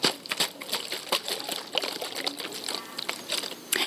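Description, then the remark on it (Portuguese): A small amount of water, about two fingers deep, sloshing and splashing inside a plastic bottle as it is shaken rapidly, with repeated crinkly splashes throughout. “Uma garrafa de plástico que eu coloquei ah. dois dedinhos de água e balancei aqui para vocês”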